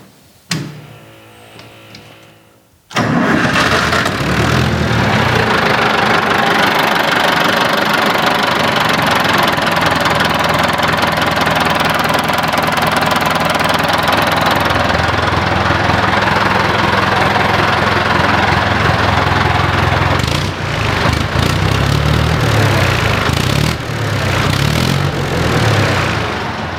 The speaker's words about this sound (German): Ja, wollen wir den IHC mal anlassen? Wir lassen jetzt den IHC mal an. So, wir glühen mal kurz vor.